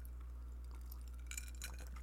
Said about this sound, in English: excuse me, I'm just taking a sip of my um, brandy old fashioned here as we as we do this.